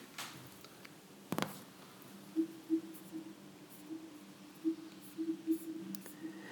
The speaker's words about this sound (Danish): Hvis jeg nu kører en finger rundt på touchpladen, så giver Apple TV de her små lyde, som man muligvis skal høre, jeg vil lige prøve at gå tættere på tv'et.